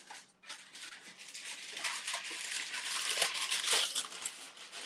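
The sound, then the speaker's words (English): Parchment paper is pulled off a roll and crinkled to line a pan for making granola, a steady crackling rustle with brief sharper snaps running for several seconds, with no talking. “I'm going to take some parchment paper.”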